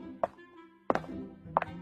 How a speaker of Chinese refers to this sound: 正在他们等得不耐烦的时候，门外响起咔咔咔咔的声音。谁来了？他们一边猜是谁的脚步声，一边往门外看。